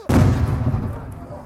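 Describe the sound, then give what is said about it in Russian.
A single sharp gunshot report, followed by a long low rumble that echoes and slowly fades. No one speaks; the shot stands alone against a muffled background. “Это выстрелы вот эти.”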